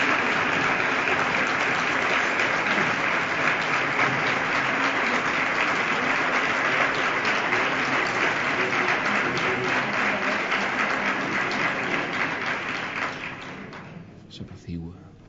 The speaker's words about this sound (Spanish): Se adelanta unos pasos el pregonero para seguir agradeciéndole al público estos aplausos.